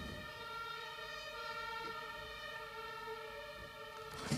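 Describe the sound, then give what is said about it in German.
An ambulance siren wails steadily in the background, a sustained rising-and-falling tone, moderately loud and alone without any voices. “Krankenwagen hier noch.”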